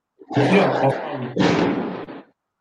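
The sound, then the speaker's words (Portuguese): Two loud firework rocket bangs, each a broad booming blast with a rough, rumbling tail lasting over half a second. The second bang follows about a second after the first. “Opa, Rojão, hein?”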